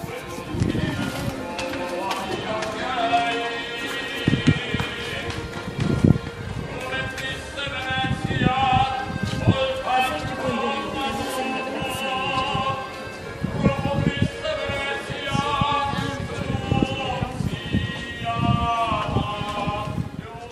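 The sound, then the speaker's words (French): In Venice, a man sings a lilting street song over accordion accompaniment, recorded from a bridge over a canal where gondolas pass; the reedy chords are held in steady, sustained swells, with faint outdoor bustle and passing sounds underneath throughout. “Il y a un petit monsieur qui chante, on entend de l'accordéon. J'ai enregistré ça à partir d'un pont qui traverse un canal.”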